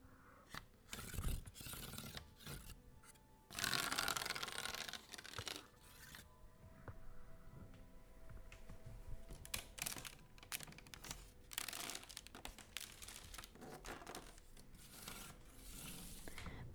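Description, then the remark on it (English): A hand rubs and taps a reddish-tan woven willow coffin, giving irregular bursts of dry crackling and scratchy rasping, including one longer scrape, separated by brief quiet pauses. “I think I should walk over and show you how it sounds.”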